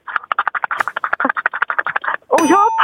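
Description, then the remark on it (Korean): A voice imitates a dog lapping water from a ceramic bowl: about twenty quick, wet, evenly spaced slurps, fairly loud, ending in a short voiced, wavering call. “재미는 있었는데 그 아까 도자기에 그 개가 물 먹은 소리 다시 한번 해주세요.”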